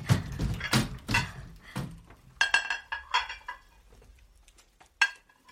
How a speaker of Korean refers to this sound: 영경은 오믈렛을 옮겨 담을 접시를 꺼냈는데 꽃잎이 파도처럼 멋을 부린 모양이었다.